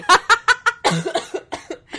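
A close, loud fit of coughing: a quick run of four sharp hacks, then several more ragged, breathy coughs trailing off unevenly.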